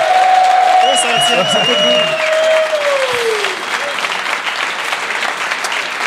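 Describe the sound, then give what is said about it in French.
A crowd claps steadily and loudly throughout for people being introduced one at a time, a dense wash of applause with a long sliding whistle and some cheering voices rising above it early on. “mais juste avant, je vais te présenter hein, une personne à la fois qui mérite son applaudissement.”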